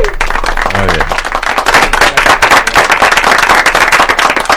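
Loud, dense applause of many hands clapping rapidly and steadily for several seconds, with a brief vocal whoop rising through it early on.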